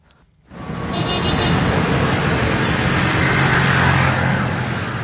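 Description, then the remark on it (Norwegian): Busy city traffic in Cotonou, the capital of Benin, rises after a brief quiet start, a dense steady roar of cars and buzzing mopeds passing by, with faint voices mixed into the din. “Slik høres det ut. Trafikken i Cotonou, Benins hovedstad.”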